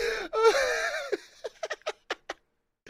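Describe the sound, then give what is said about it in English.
A drawn-out wheezing gasp gives way to a quick run of about seven loud, sharp nasal sniffs, unevenly spaced, with no talking. “I heard the, the sniffing sound.”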